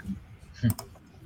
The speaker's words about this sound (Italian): C'è qualcuno che ha un mouse che fa veramente un casino assurdo, non so chi è, ma...